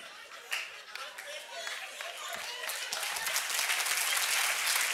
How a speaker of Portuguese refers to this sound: Desculpa, as palmas me atrapalharam.